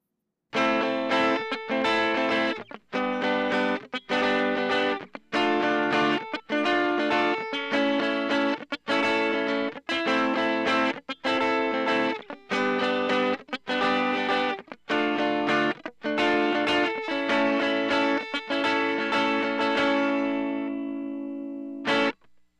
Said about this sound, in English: it works really well to kick on during our verse to get the slight amount of breakup we need with our somewhat clean guitar